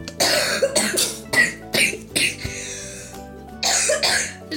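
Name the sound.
coughing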